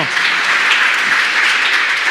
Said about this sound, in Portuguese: Dá mais uma salva de palmas